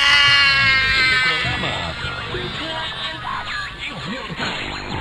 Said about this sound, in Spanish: ¿Qué es esto? Es cada vez más fuerte. ¿Por qué? ¿Por qué interferencia?